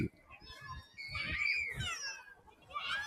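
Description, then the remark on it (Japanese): Children shriek and squeal while playing in a park, high-pitched cries rising and falling continuously over about three seconds, with faint low background rumble underneath. “今、子供の叫び声聞こえますよ、これ。”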